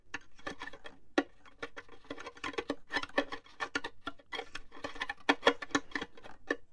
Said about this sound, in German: es soll ja mehr so nach Ameisen oder, oder sonst Insekten klingen. Dann legen die die Finger leicht drauf, dass die blockiert sind. Und mit den anderen Fingern zupfen die so dran. Dann ist es so ungefähr.